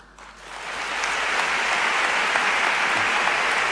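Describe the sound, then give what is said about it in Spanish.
An audience breaks into an ovation in memory of Fray Carlos Amigo Vallejo, former archbishop of Seville and cardinal, dense applause swelling in over the first second and then holding steady and loud, a continuous crackle of many hands clapping with no voices. “Lógica, ovación en el recuerdo a Fray Carlos Amigo Vallejo, el que fuera histórico arzobispo de Sevilla, cardenal, y que nos dejaba el pasado año 2022.”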